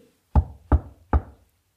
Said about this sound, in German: Dann kam er zurück, klopfte an die Haustür